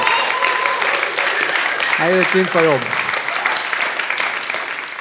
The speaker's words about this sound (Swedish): Kan vi inte ge honom en liten applåd?